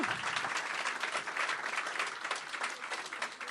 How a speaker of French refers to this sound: Hey, on donne une bonne, main d'applaudissement à Jean-Christophe. C'était vraiment bon. J'ai aimé ça.